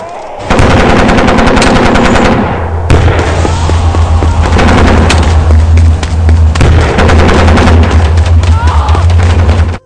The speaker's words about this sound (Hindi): उसने अपने सेना को भिजवाया और जुलूस पे गोलियां चलाई